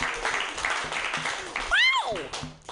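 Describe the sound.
A crowd applauds in a steady, dense clatter of clapping, and partway through a loud voice lets out a sweeping whoop that rises and falls over the noise.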